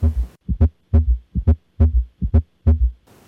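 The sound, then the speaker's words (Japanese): A clear heartbeat with a galloping rhythm of third and fourth heart sounds, where extra low thuds before the first and after the second sound join the main beats so each cycle has about four soft knocks, repeating steadily for several cycles with no voices. “また3音4音えこれは一般的には正常な方では聞こえないのですが、えこの3音4音は心臓の容量負荷であるとか心臓の機能が悪い心不全などを起こしている方で聞こえる心音です。”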